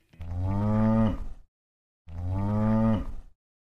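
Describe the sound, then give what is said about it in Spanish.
A heifer inside a Chevrolet Luz pickup truck with a wooden enclosure built on its bed moos twice, each call a long, loud, low harmonic bellow lasting over a second, separated by a brief pause, with no other sounds. “Adentro de esa camioneta Chevrolet Luz había una vaquilla.”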